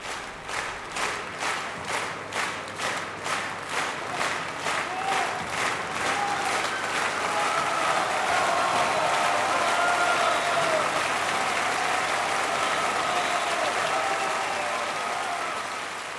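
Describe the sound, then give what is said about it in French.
A crowd applauds loudly, starting with steady rhythmic clapping in unison that soon dissolves into a dense, continuous roar of applause, with a few faint cheers rising above it. “ils donneraient au bon Dieu une salve d'applaudissements afin de le féliciter d'avoir mis en scène un spectacle aussi réussi.”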